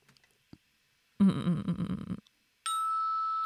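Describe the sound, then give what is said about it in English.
A short vocal burst is followed by a single bright bell ding that rings out steadily and loudly, its clear tone sustaining to the end. “Ding goes the bell.”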